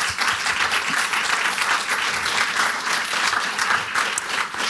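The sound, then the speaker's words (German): An audience applauds steadily after a discussion at a talk event, a dense wash of many hands clapping at an even loudness for several seconds with no break and no voices on top. “vielen Dank an euch im Publikum und ähm, ja, ein Applaus vielleicht nochmal kurz.”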